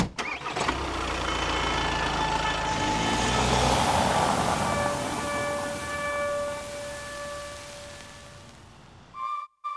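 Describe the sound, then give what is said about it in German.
A car engine runs steadily with a loud, continuous rumble and whine, as if heard from inside while driving about 30 kilometres to a fish hatchery, before cutting out abruptly near the end. “So, wir sind jetzt ungefähr 30 Kilometer mit, mit dem Auto gefahren, angekommen am Bruthaus”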